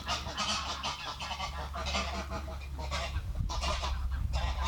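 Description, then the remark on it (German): Ducks squabble noisily on a very windy day, a steady jumble of harsh, overlapping quacks and squawks filling the whole stretch, with a constant low wind rumble underneath. “Enten haben sich auch gestritten.”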